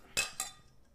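Two bright glass clinks in quick succession, ringing, the second slightly softer, glasses touched together in a toast during a party drinking game, with a brief shimmering decay and no talking.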